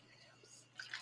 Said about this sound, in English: Sorry, you're gonna listen to my drink pour.